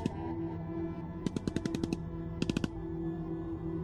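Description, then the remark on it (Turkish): Two bursts of rapid automatic gunfire, a longer string of sharp cracks followed by a shorter one, ring out over a steady low droning hum. “Silah sesleri hala geliyordu.”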